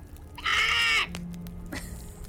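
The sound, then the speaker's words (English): A single loud, harsh crow caw, drawn out for about half a second, followed by quiet background noise and a faint low hum. “the three of you have your attention on the bird and you say, Are you the wizard?”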